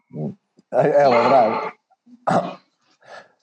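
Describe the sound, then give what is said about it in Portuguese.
A dog gives a couple of short, sharp sneezing snorts, with a person briefly talking between them. “O cão está é... com Covid, está a espirrar.”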